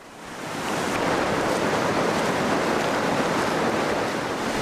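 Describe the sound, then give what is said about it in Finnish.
A waterfall in Thingvellir National Park, Iceland, roars in a steady, dense wash of rushing water on a rainy, stormy late-May weekday morning, with sleet falling and gusty wind blowing over it. It swells in within the first second, then holds loud and constant, with no voices. “Sateisena ja myrskyisenä toukokuun lopun arkiaamuna vesiputous saa tässä Tinvellerin kansallispuistossa kuohua suhteellisen rauhassa.”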